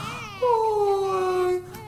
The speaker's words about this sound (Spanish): está llorando un niño. ¡Ay, sí! debe de ser de la casa de enfrente. El pobrecito, con el calor, no podrá dormir en su cunita.